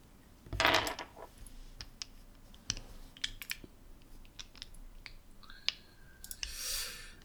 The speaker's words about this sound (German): Ja, ich muss gerade trotzdem nochmal den Schaden separat würfeln